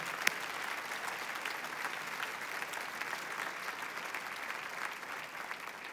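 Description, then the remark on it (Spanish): An audience applauds the Lord steadily, a dense wash of many hands clapping at an even level throughout, with one sharper clap standing out at the start and no voices heard. “Aplaudimos al Señor.”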